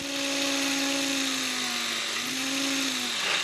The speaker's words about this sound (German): Richtig, hier wird gedrechselt.